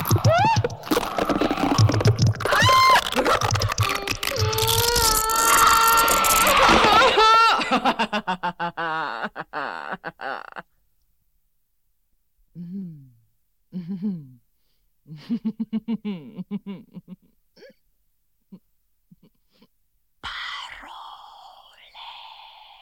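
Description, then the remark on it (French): Cathy Berberian's female voice performs the wordless vocal piece Visage: dense, gliding tones at first, then a held-back voice in broken, stifled bursts, gasps and whisper-like breaths separated by silences, gradually released toward laughter and a cry, ending in a hissy, strained sound. “On entend euh, cette voix féminine de Cathy euh, Barberian qui ne sort pas, qui est euh, retenu, puis qui se relâche progressivement jusqu'au rire, jusqu'au cri.”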